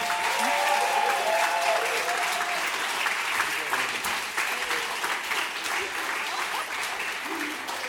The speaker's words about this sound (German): Einen ganz großen Applaus für Platz Nummer 3.